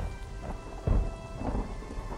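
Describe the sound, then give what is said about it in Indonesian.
Heavy rain pours steadily while a deep rumble of thunder swells up near the middle, loud and low, then fades back under the constant downpour. No voices. “Hujannya deras amat. Mana petirnya gahar-gahar pula.”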